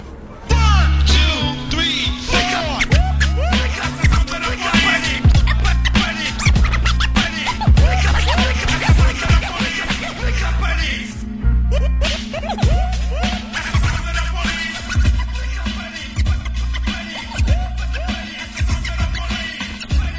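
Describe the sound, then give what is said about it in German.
Vinyl record scratching cuts rhythmically across a loud, bass-heavy music track with a French chanson heard in the background, the quick back-and-forth scrapes repeating throughout with a brief break near the middle. “Und dann mit diesen, und, ähm, ja, mit diesen Scratches und dann auch den französischen Chanson, wo man im Hintergrund hört.”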